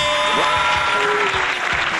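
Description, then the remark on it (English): An applause sound effect on The Dan Bongino Show: steady applause with many hands clapping densely, loud and continuous throughout, with a faint tonal hum and a hint of a voice in the background. “Well, now we got an applause line, too.”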